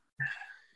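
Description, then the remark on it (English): A single sharp sneeze bursts out suddenly, fairly loud, then trails off in a breathy fade with no talking around it. “Oh, bless you.”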